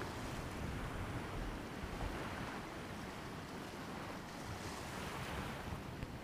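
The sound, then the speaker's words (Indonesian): Loud, continuous roar of ocean surf breaking against rocks below a cliff, with strong gusting wind buffeting the microphone throughout; no voices, just a dense wash of crashing water. “Dari bawah tebing, terdengar suara ombak pecah dan berdebur di permukaan batu.”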